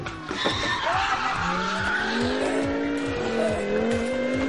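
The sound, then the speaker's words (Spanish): A car engine roars while tires screech in long, wavering squeals as the car speeds in to make a spectacular entrance and skids hard, continuous and loud throughout with no one talking. “Por primera vez en la historia del descampado tenemos a un coche en el programa.”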